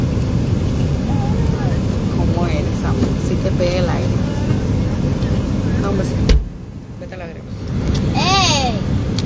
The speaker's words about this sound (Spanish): Este, ahí va otro carro, miren, vinieron, qué bonita labor, saludos.